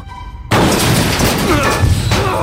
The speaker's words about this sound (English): I ran for the door, turned the knob, heard the cover fall to the ground with a harsh clang, pushed hard on the door, and.